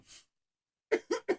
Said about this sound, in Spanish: Justo tienes que toser largo aquí.